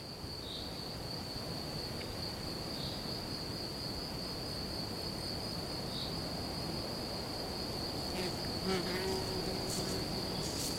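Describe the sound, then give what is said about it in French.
Crickets chirp in a steady, continuous high-pitched trill at a forest edge beside an empty reservoir near Aix-en-Provence, France, on a spring late afternoon, joined by a faint buzzing insect and soft outdoor ambience, with no voices present. “C'est la fin de l'après-midi, et là, bon prince, les grillons se sont mis à chanter.”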